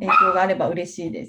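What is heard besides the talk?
dog barking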